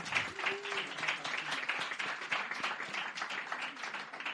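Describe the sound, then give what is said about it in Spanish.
Steady, dense, loud applause from a crowd after a finalist's score of 25.5 is announced at a competition, a continuous wash of many hands clapping at a fairly even loudness for several seconds, with faint murmurs of voices mixed underneath. “Muy bien, aplauso fuerte.”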